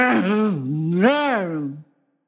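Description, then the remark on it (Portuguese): A single drawn-out vocal growl, about two seconds long, made by a human voice imitating a furious lion in a told fable, rising and falling in pitch with a rough, strained tone before cutting off. “Quando o rei leão viu que o galo não estava ali, ficou furioso, grunhiu”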